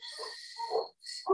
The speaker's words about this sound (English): excuse the dogs in the background